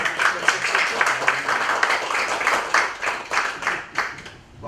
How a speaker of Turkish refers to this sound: Orada kendisi şimdi. Kendisine de bir alkış rica ediyoruz.